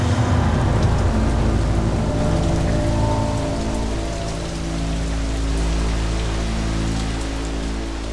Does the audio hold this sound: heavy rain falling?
yes